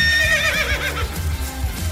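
A horse whinnies loudly, a shrill quavering call that wobbles downward in pitch and fades within about a second, over a steady low rumble.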